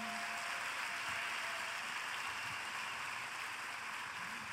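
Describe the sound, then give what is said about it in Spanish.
A crowd applauds the Lord, a dense, continuous wash of clapping that holds at an even, fairly loud level for several seconds with no voices over it. “Ahora dale un fuerte aplauso al Señor.”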